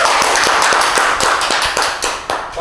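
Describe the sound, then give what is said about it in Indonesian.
A burst of applause: several people clapping steadily for a few seconds, the sharp claps overlapping into a loud, crackling wash with no voices. “keren sekali ya, luar biasa tepuk tangan dulu tepuk tangan”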